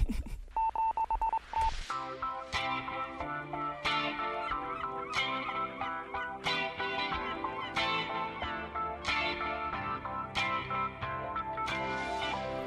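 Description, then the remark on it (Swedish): A quick burst of touch-tone dialing beeps as phone calls are made, followed by a steady, rhythmic electronic ringing melody that repeats loudly until the end, with no talking. “Eh, Karl ringer några samtal.”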